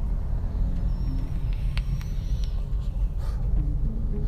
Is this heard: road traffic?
yes